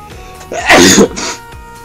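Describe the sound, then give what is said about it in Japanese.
A single loud human sneeze bursts out sharply with a breathy, hissing release, preceded by a short inhale and followed by a softer exhale, with no talking. “くしゃみもするけどくしゃみもするけど私は元気です”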